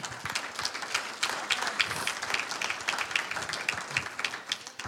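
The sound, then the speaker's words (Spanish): A crowd applauding for the Lord during a Christian sermon, many overlapping hand claps forming a dense, continuous patter that stays fairly even in loudness throughout, with no one speaking. “Tenemos que tener comunión unos con un aplauso al Señor.”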